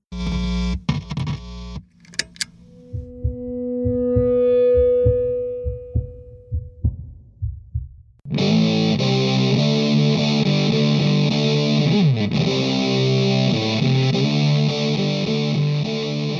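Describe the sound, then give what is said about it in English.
A demo of an Electro-Harmonix Big Muff Pi fuzz pedal on electric guitar: thudding low muted notes and a long, swelling held note, then a loud, thick, saturated riff of sustained fuzzy chords. No one speaks. “A model called the Big Muff Pi helped create the electric guitar sound of the 1970s. Here's a sample from a demo.”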